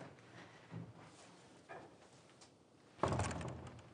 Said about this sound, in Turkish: Odanın kapısı açıldı, içeri Fatma girdi gülümseyerek.